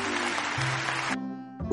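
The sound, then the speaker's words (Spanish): A burst of applause sound effect, dense and steady clapping over a low humming tone, cutting off abruptly after about a second into a sustained buzzing tone. “Ahora sí pondré aplausos.”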